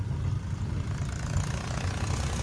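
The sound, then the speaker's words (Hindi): A steady, low engine rumble runs throughout with no pauses, a car motor droning at a moderate, even level with a faint vibrating texture underneath, as the car is driven weaving along a bumpy road with waterlogged stretches and potholes. “टेढ़ा मेढ़ा होके गाड़ी को निकालना पड़ रहा है”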